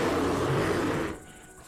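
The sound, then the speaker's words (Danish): A brown bear, rearing up on its hind legs, lets out one loud, rough, heavy roar lasting about a second, then cuts off abruptly into near silence. “Bjørnen rejste sig på bagbenene og brølede op mod dem.”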